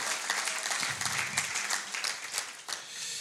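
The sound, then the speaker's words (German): A crowd at a baptism service applauds the guests steadily, many hands clapping in a dense, continuous wash at a moderate level, with no voices standing out. “Lasst uns doch nochmal den Gästen heute besonders Einfach einen Applaus geben.”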